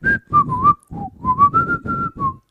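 A person whistles a short family signal tune of about nine quick notes, mostly steady mid-high tones with slight rises and dips between them, clear and fairly loud with no talking.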